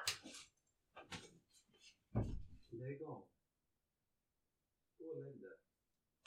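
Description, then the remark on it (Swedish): A female dog barks several times in quick, uneven bursts, loud, then falls quiet before one last bark a couple of seconds later. “Jag ber om ursäkt för vår mm. skällande hund, hon har blivit mycket värre.”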